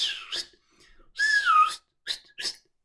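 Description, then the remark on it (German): A person imitates the whistling call of small animals with a series of short, high whistles: a few quick chirps, then a longer warbling whistle, then two more brief peeps, fairly loud. “Und das, das ist echt cool, diese kleinen Viecher, weil die rennen da ganz wild rum und dann pfeifen die immer so lustig. Die machen immer so”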